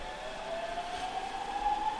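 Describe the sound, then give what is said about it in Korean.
A train pulls away, its motor whine rising steadily in pitch over a broad rumbling hiss that grows slightly louder, with no voices. “열차가 떠나고 후회가 밀려온다.”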